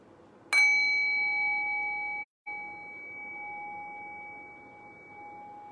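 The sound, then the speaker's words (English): A single meditation bell is struck once to begin a guided meditation, its bright metallic attack settling into a long, steady ringing tone that sustains and slowly fades, with no voices present. “So I will ring the bell and I'll guide the meditation.”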